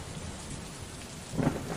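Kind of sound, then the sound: nature, rain with thunder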